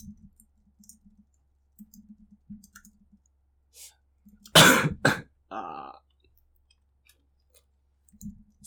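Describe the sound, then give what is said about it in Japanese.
A single loud cough bursts out midway, followed by a brief throat-clearing rasp, surrounded by soft clicks and faint murmuring in otherwise quiet surroundings. “咳をすると波形がすごいことになるから、申し訳ない気持ちになる。”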